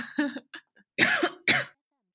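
A person who recently had COVID coughs: a run of short, breathy coughs, a few small hacks first, then two loud, harsh bursts in close succession, with no talking.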